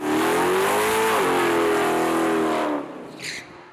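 A race car, standing still with full brake and full throttle, does a quick burnout to warm its cold tires: the engine roars loud and steady at high revs for nearly three seconds, then drops away, followed by a brief high-pitched squeal.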